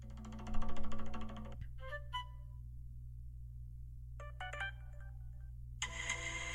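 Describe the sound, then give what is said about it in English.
A standard phone ringtone plays in several bursts: a dense electronic melody, then short chiming notes, another quick tonal flourish, and a bright sustained tone at the end, all over a steady low hum. “the Law and Order sound effect.”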